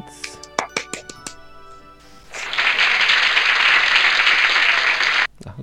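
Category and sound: crowd, applause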